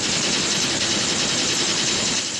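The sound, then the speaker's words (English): A washing machine running a high-speed spin cycle on its Superspin setting, giving off a steady, loud mechanical roar and rumble that holds constant without pauses, with no voices present. “The, uh, the washing machine's on on Superspin, as featured in the Seventh This report a few weeks ago.”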